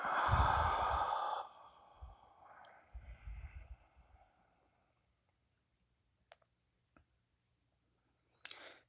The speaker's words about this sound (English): allowing the breaths to continue to be just nice and long and slow.